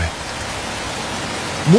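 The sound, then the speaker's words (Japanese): Heavy rain pours down in a dense, steady hiss that fills the whole moment, with a brief vocal sound rising over it right at the end. “晴れのち雨雨のち大雨大雨のちもっと大雨”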